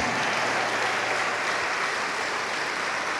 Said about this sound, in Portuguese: Oh glória, vamos aplaudir ao Senhor Jesus.